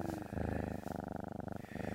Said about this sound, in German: Ein schwarzer Kater umschnurrt ihn, reckt sich, streckt sich, gähnt und zeigt seine spitzen Zähnchen.